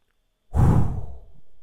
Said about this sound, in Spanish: Y cada vez que tu cerebro diga, vámonos a otra parte, tomas una respiración profunda